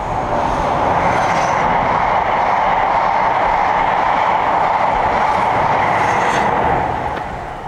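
A train rumbles along the rails with a steady, loud, dense roar that holds nearly constant throughout, easing slightly at the very end. No one speaks.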